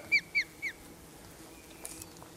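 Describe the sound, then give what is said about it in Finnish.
An osprey, seemingly trying to catch a fish, gives three sharp, high-pitched whistled chirps in quick, evenly spaced succession, each slightly downward-curving, followed by quiet with a faint steady background hiss. “toi kuulostaa siltä, että, että se yrittää saada sieltä kalaa ja tekniikka, tekniikka on siis se, että heti kun sen kynteen osuu kosketus, niin loputkin kynnet heilahtaa ja fisu, no jää, fisu jää kinttuun kiinni.”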